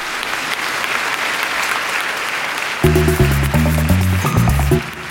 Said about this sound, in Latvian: iespaidīgi, vai mēs varam dabūt aplausus par šo radošo sniegumu.